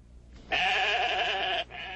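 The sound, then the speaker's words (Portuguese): A single loud sheep bleat, held for about a second with a wavering, nasal tone, followed by a quieter trailing bleat; clear with no talking. “Todas as ovelhas parecem iguais.”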